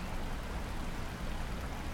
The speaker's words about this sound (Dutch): het ruisen van het water bij de sluis. En tegelijk hoor je ook de vistrap die veel zachter klinkt.